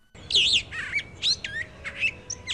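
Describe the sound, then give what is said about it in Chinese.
A magpie's chattering call, heard as it flaps its wings and flies toward another tree after a kitten startles it awake: a string of harsh, raspy high notes in quick, uneven bursts, moderately loud over a faint low background hum, with no voices. “正在做梦的花喜鹊被不速之客小花猫给吓醒啦，它连忙扇动着翅膀，朝另一棵大树飞去，一边飞。”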